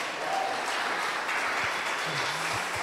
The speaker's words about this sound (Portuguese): E se você crê nisso, aplauda Jesus bem alto.